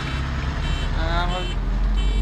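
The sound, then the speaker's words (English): Steady, loud low rumble of moderately heavy city street traffic on Camden Street around quarter past six, heard from inside a bus, with a brief tonal beeping partway through and faint, indistinct voices in the background. “Well it's um, quarter, quarter past six, and we're in Camden Street, traffic is not as bad as I actually um, thought it would be, but uh, still sticky enough.”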